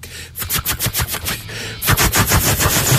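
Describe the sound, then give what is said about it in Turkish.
A voice imitates meteors of a meteor shower streaking past at 35 kilometres per second, spitting out a rapid string of sharp, percussive mouth bursts that grow denser and louder toward the end, almost like rattling gunfire. “Göktaş sesi çıkartıyorum.”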